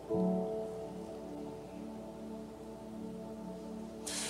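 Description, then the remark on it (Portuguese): Steady rain falls with a soft, continuous hiss throughout, mixed with a low sustained musical drone, and a brief brighter splash of noise right at the end. “Pessoal do Mato Grosso, vocês perceberam que está chovendo além do normal esses dias aqui?”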